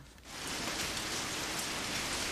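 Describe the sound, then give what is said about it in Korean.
A sudden rain shower in mid-June starts pouring down, a dense steady hiss of drops striking a surface after a brief quieter moment, heard from under the eaves of a small shoe shop, with no voices. “아, 갑자기 웬 소나기야.”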